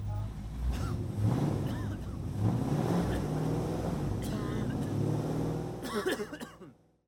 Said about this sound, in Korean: 이 소리는 기후 위기를 심화시키는 내연기관차가 매캐한 매연을 뿜으며 지나가는 소리입니다.